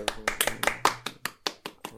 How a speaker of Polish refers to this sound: przede wszystkim język polski. Można klaskać. Słyszę.